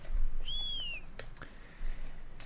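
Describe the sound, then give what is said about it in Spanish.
A single short, high-pitched whistle, Hasbula's whistle, that glides up slightly, holds, then dips away after about half a second, followed by a few faint clicks against a quiet background. “Pero bueno, que me he colado con el silbito de Hasbula.”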